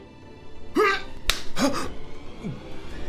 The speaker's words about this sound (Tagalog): Bakit mo ko sinampal, Propeta Sedekias? Magsalita ka! Bakit mo ako sinampal?